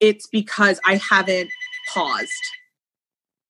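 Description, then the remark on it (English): A phone rings with a steady electronic tone in the background, partly under a person speaking and continuing briefly after the talk stops, fairly faint. “Sorry about my phone ringing in the background.”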